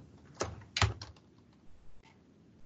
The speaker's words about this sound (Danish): Så taster man et, et ansøgt beløb.